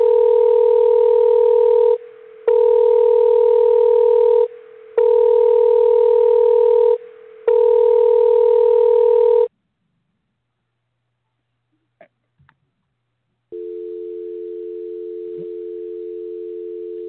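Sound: telephone call ringing unanswered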